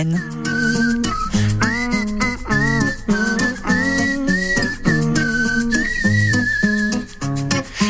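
A pop song plays on the radio at a steady, loud level, with a driving beat, layered chords and a bright, high, whistle-like melody gliding over the top; no one speaks.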